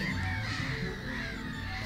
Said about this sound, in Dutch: Maar als ik mijn ogen dicht doe, dan denk ik dat ik aan zee ben gewoon. Met dat enorme kabaal van al die meeuwtjes. Ik vind het echt prachtig.